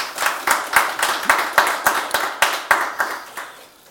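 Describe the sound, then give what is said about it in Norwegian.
An audience at a Teknisk Ukeblad talk event claps to welcome journalist Per Anders Todal, a dense patter of many hands with brighter, regular beats running through it, steady for a few seconds and then tapering off at the end. No one speaks. “Liten applaus til eh, Per Anders, som har kommet hit i dag.”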